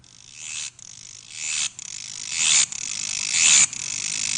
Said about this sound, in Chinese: 其实它叫螽斯啊。 对， 呃，这个叫纺织娘，这个声音我们其实现在也很少听到了。